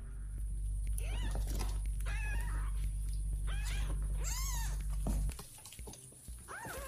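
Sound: cat meowing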